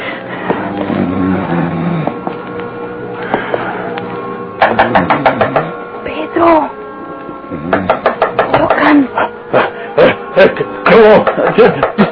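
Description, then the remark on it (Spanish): Loud knocking on a door, which has gone on for a while, comes in several rapid bursts of sharp raps, separated by short pauses, after a few seconds of muffled voices and low tonal sound. “desde hace rato están tocando a la puerta, pero no queremos abrir porque tenemos miedo de que vengan a buscarlo”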